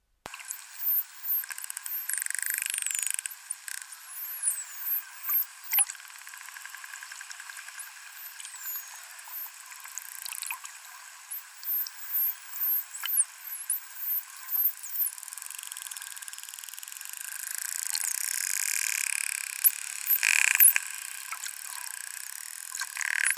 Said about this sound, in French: Euh, et, quelques exemples donc, de sons qu'on a enregistrés sur des clics. Donc là, on a euh, des sons de grands dauphins. Donc on a les sifflements et on va entendre les clics.